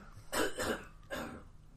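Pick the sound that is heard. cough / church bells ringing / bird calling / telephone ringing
cough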